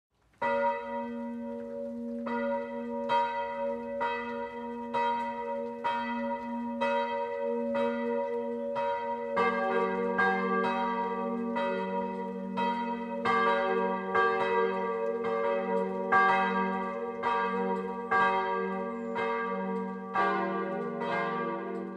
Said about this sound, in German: Es ist 12 Uhr. Das Mittagsläuten kommt heute von der katholischen Pfarrkirche St. Nikolaus im oberbayerischen Bernbeuren.